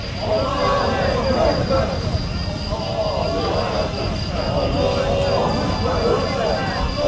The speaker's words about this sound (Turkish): İvilti gibi çıkan bir ses. Gittikçe güçlenen bir ses. Kulak kesildi nöbetçi tatlı bir esinti Osmanlı hatlarından gelen sesi yaslandığı burca getirip çarptı. Arapça kelimeleri açıkça duydu nöbetçi. Allahu Ekber, Allahu Ekber.